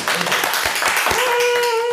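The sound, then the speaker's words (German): Steady crowd applause with dense overlapping hand claps, fairly loud, carrying through the whole stretch; a thin sustained tone joins partway through. “Das soll nochmal ein Applaus werden.”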